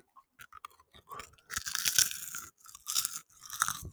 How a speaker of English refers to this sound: Oh, you can just hear that toffee caramel just squishing in your mouth, can't you?